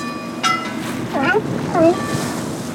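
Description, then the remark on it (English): A boat motors across open ocean out of San Francisco Bay, past the Point Bonita Lighthouse in the Marin Headlands and a yellow buoy covered in sea lions, its steady engine drone blending with wind and water, while a few short, wavering animal cries rise briefly above the noise. “We sail out of the San Francisco Bay and are traveling up past the Point Bonita Lighthouse in the Marin Headlands we pass a yellow buoy covered in sea lions.”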